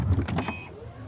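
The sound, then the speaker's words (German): A car's electric tailgate opening: a brief electric motor whirring with a steady higher whine over a low rumble, fading after about half a second. No one speaks. “Klar, die Heckklappe öffnet elektrisch”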